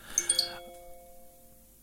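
A mobile phone ringtone chimes: a quick run of bright, bell-like notes, then a few sustained tones that ring on and slowly fade. It's clear, with no one talking.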